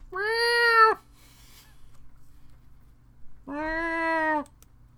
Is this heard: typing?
no